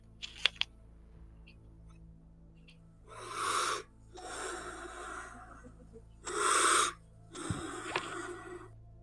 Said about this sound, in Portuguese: Respira mais calmo, você tá respirando muito fundo e muito rápido.